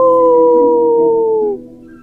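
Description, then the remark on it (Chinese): A wolf-like howl rings out, one long, loud, steady wail with a slowly sinking pitch that holds for about a second and a half before cutting off. “其他的狼回答。他们会杀死我们！呜！”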